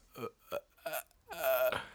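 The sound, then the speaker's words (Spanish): A voice imitates the creaky, croaking ghost sound from a horror film, like a door opening, in a few short rasping bursts, ending in a longer strained croak, fairly loud. “Como de puerta abriéndose, está feo.”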